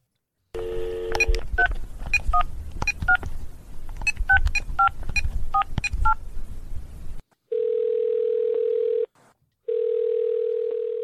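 Telephone keypad dialing tones: a rapid, uneven string of about fifteen short two-note beeps over a low rumble, followed by a steady droning tone that breaks off briefly and resumes.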